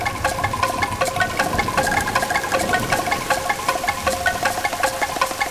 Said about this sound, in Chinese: 突然，天空飘来了一朵朵又厚又黑的乌云，没下下，那雨滴真的就滴滴答答的落在了狐狸要出嫁的队伍周围。哇，真的下雨了耶！